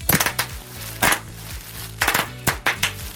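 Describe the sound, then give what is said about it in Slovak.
Bubble wrap being popped: a handful of sharp, crisp cracks arriving singly and in quick clusters at irregular intervals, with faint low tones humming underneath and no talking. “Ono sa aj hovorí, že praskanie tých bubliniek je super antistresová aktivita, napríklad aj v pondelok ráno.”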